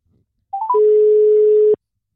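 Three quick rising electronic beeps lead into a single long, steady ringing tone of an outgoing phone call to a Nordjyske journalist, clear with no voices, cutting off after about a second.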